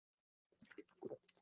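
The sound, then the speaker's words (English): A quick, quiet sip from a drink, with soft wet mouth and swallowing noises over about a second after a moment of silence. “take a quick sip.”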